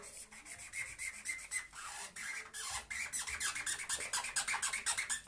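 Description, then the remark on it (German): A nearly empty marker pen scribbles quickly across paper, a dry rubbing squeak in rapid back-and-forth strokes, fairly quiet and steady throughout with no talking. “Sogar wenn ich jetzt schnell drüber male, ist es schon durchsichtig.”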